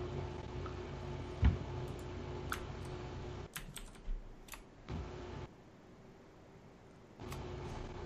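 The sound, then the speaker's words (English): Quiet computer keyboard typing and mouse clicks as someone clicks on a link to view an image, a handful of sharp taps scattered irregularly over a steady low background hum, with no one talking. “I'm clicking on it right now.”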